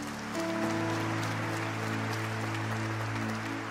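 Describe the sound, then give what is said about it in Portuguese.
A church audience claps loudly and steadily for a few seconds in applause for Jesus, a dense wash of hand claps over a sustained low keyboard chord droning underneath. “Uma salva de palmas bem forte para Jesus.”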